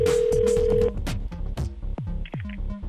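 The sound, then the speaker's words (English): A steady electronic phone tone holds for about a second, then gives way to a quick run of clicks and short beeps, as if a call is being connected. No one speaks. “So that's who I'm going to get on the phone calling her now.”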